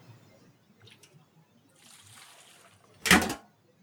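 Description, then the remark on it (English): A loud, sudden splash of water lands at once after a few seconds of quiet rustling as a bucket of water is dumped over a person's head, then fades quickly back to near silence. “there was water in the bucket.”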